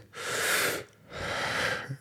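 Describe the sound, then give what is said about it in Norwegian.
Two long, heavy breaths through the mouth demonstrating breathwork, one drawn in and one pushed out, each a broad airy rush lasting most of a second, fairly loud with no talking. “Da hadde jeg hørt om breathwork, og at det egentlig bare så å puste med munnen inn Ut.”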